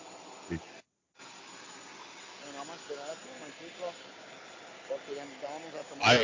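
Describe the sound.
The engine of a small propeller airplane with propellers on the sides, at a regional airport and bound for Medellín, drones steadily throughout, a constant hissing roar with voices talking over it, and a brief dropout near the start.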